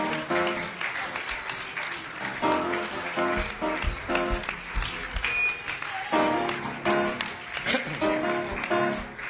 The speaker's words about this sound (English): Stand to your feet and clap your hands and open your mouth. Shout unto God.